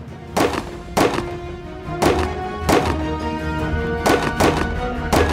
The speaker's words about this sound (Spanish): Han desembarcado junto a la barra del almacén, están avanzando hacia el palacio y de repente se ven hostigados por disparos de francotiradores de las unidades de Cali.